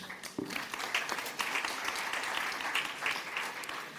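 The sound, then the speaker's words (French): Sustained applause from an audience at an event, thanking the organisation Citéo: a dense, steady wash of many hands clapping for about four seconds at a fairly even loudness, with no voices heard over it. “Merci à Citéo et à Cécile, on t'applaudit aussi.”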